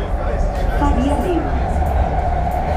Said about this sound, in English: Faria Lima subway station. It's really, really uh, noisy in here, but a good exercise.